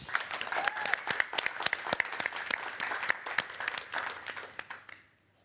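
Warm audience applause, a dense burst of many hands clapping at once, steady and lively for about five seconds before it quickly fades out.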